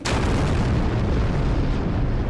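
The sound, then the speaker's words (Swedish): A bomb explosion sound effect: a sudden sharp blast that rolls into a loud, sustained low rumble for a couple of seconds, with no voices. “Jag droppar en ja. bomb här.”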